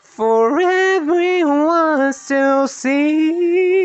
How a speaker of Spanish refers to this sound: Eso pues fue voz de cabeza, obviamente no estoy afinado todavía eh, porque no he hecho mi descalentamiento vocal, pero bueno.